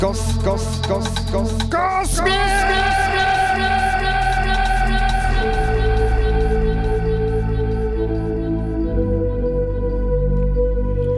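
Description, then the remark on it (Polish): A voice through a microphone with a heavy echo effect, a short syllable repeating over and over in a rapid, ringing stream, with a sustained tonal hum layered underneath. “Kiedy, kiedy ja to echa używałem w ogóle?”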